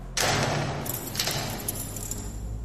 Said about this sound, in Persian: چند دقیقه همینطور داد و بیداد کردم تا اینکه صدای باز شدن یه در بزرگ فلزی اومد